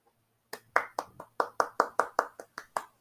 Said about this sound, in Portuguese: Palmas para mim.